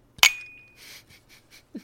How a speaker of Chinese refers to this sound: 对对对好，那就来干杯喽，哈！好 好， 祝节目顺利。来，三二一，